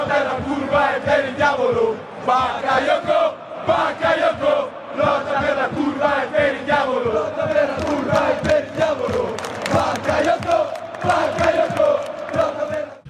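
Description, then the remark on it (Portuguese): A large crowd of Milan football fans chants their stadium song in honour of Bakayoko in unison, loud and sustained, with repeated phrases pulsing steadily over about thirteen seconds. “Então a gente ouve agora aí a música da torcida do Milan.”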